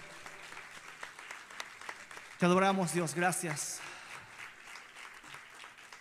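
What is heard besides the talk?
audience applause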